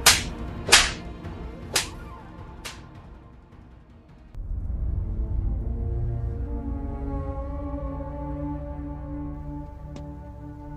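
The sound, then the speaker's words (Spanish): Four sharp, stinging slaps to the face crack out in quick, uneven succession, loud, followed by a low, sustained droning musical swell with no talking. “Luego comenzaron a escupirle en la cara y a darle bofetadas.”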